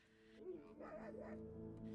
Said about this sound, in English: The dingo started barking, and the bandicoot squealed through Nikau's comms.